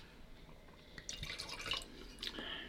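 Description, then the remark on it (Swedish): Croatian wine being poured into a glass, a soft splashing trickle with bright clinks and gurgles building over a couple of seconds, no voices. “Häll upp lite mer ska du se vad som händer.”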